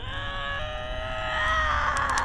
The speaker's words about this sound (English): It was then I heard … belch forth a loud primal grunt.